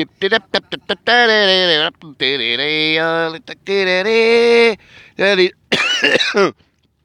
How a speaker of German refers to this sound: Ja, Husten.